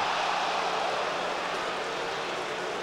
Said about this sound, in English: Two balls, two strikes the deflation of the crowd as he throws the ball. It's it's that type of like immediate reaction from the crowd that really ramps up the excitement during something like a no-hitter.